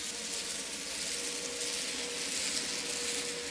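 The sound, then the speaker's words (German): Underwater recording of an approaching fast ferry: a dense, steady hiss of propeller noise with a faint droning hum beneath it, holding at a constant loudness throughout. “Eine Schnellfähre nähert sich.”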